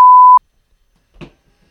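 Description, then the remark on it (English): A single loud, steady censor bleep sound effect, added in editing to censor last names, at a fixed mid-high pitch lasts well under half a second and cuts off sharply, followed by silence and then a brief, faint vocal sound. “Um, now I can censor last names in post because I have the sound effect on my computer too.”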